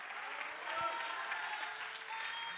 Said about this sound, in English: If you believe that, can somebody clap your hands and can somebody shout hallelujah?